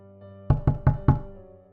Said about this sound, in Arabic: في حد خبط على الباب حوالي الساعة عشرة بالليل بعد يوم كامل من الملل اللي ما بينتهيش دي كانت فرصتي للخلاص ممكن يكون عامل من عمال الصيانة ممكن يكون واحد من جيراننا وممكن يكون حد من صحابي من آخر الشارع